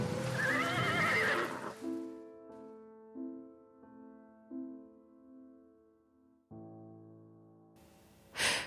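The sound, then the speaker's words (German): A horse whinnies loudly for nearly two seconds, then steady low droning tones hold and swell in steps, ending with a short breathy snort-like burst. “Auf einem Schimmel muss er als Geist nächtlicherweile, besonders bei Sturm und Unwetter, in dem Wald umherreiten”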